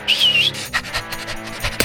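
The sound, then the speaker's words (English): A dog gives a high, drawn-out whine, then a string of quick, rough bursts like short barks and heavy panting, fairly loud, with no one talking. “Oh, flip. Dog!”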